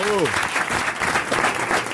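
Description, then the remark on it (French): Steady, dense audience applause fills the whole stretch at a strong, even level, with a brief voice fading out at the very start; the audience applauds Marc-Antoine Lebré on RTL's Les Grosses Têtes. “Vous pouvez applaudir Marc-Antoine Lebré, bien sûr.”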